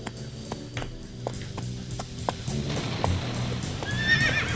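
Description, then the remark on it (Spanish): Steady clip-clop of a tired purebred horse's hooves plods along at an even pace, then the horse lets out a high, wavering neigh near the end over a low background rumble. “va el, caballo, mira, mira, ahí va el caballo cansado.”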